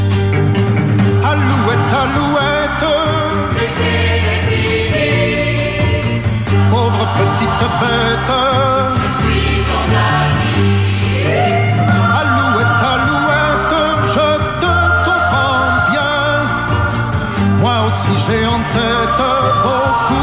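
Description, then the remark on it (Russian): A French pop song, known as the theme tune of the TV programme "V mire zhivotnykh", plays loudly and steadily for its whole length, with a full band arrangement of bass, rhythm and melodic instruments, and no one talking over it. “А на самом деле это песня. Это песня, французская эстрадная песня,”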